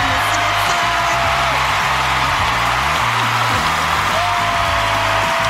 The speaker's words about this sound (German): Ein Überraschungsgast hat es ebenfalls gegeben, der fast am meisten Applaus und Gekreitsche geerntet hat. Die ehemalige First Lady Michelle Obama.